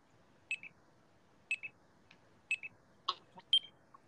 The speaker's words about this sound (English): I'll just play you the metronome because it's actually quite an annoying sound